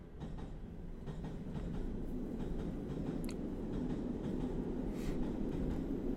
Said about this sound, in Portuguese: Olha, mais um comboio.